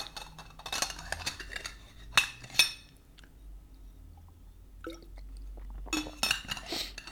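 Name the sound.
squeaking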